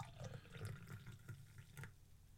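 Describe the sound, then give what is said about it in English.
Stout pours steadily from a can into a glass, a gurgling, splashing stream with low glugging beneath it and no voices. “All right, pour a bit of that out.”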